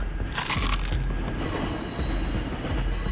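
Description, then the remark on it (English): A large, heavy trolley brakes hard and grinds to a halt, its wheels grinding and squealing against the rails in a loud, sustained metallic screech over a deep rumble, with no voices. “The driver slammed on the brakes, but the large trolley had difficulty stopping.”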